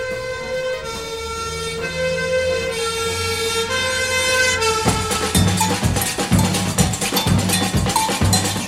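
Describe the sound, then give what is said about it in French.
A loud fire siren in the middle of the night in Rio holds a steady, piercing wail calling all firefighters to a burning coffee factory, and about halfway through a rhythmic clanging clatter joins in beneath it. No one speaks. “En pleine nuit, une sirène appelle au feu tous les pompiers.”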